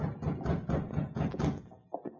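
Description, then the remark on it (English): Two quick, sharp knocks on a door by a mine foreman in the town of Selkirk come near the end, following a dense, busy stretch of sound with no voices. “The man who had knocked was Zona Howard's mine foreman, John Slocum.”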